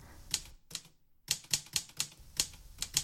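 typewriter typing

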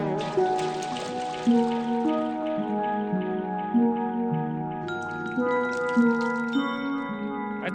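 dripping water sound effect

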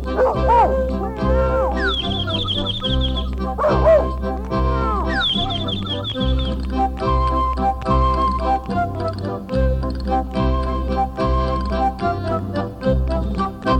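dogs barking

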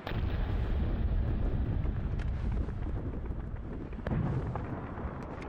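fireworks exploding

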